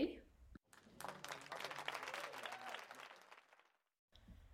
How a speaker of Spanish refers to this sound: Hoy les vengo a platicar de y yo de que aplausos, déjenme los pongo, ¿ok?